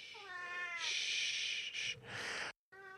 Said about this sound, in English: Hello, Mech. This is my 18 year old cat who has wandered into the room for the first time in a while. Hi, kitty. Shh.